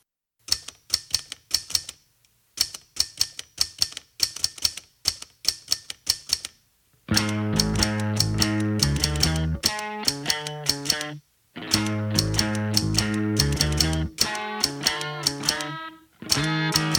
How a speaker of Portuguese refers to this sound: O instrumento não convencional e doméstico que mais chamou a sua atenção foi uma máquina de escrever mecânica que existe em sua casa.